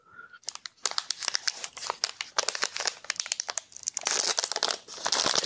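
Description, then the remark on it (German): Steady crinkling and crackling of a plastic protein bar wrapper being opened, with rapid irregular rustles that thicken into a louder tearing rip near the end. “war da gerade was am Auspacken.”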